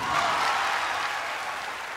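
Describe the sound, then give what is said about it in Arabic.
A crowd at an Apple presentation applauds warmly after HBO announces its new streaming service with Apple as exclusive launch partner, a dense, steady wash of many hands clapping that holds at a fairly loud, even level throughout, easing off just slightly toward the end. “يصفق الجمهور بحرارة.”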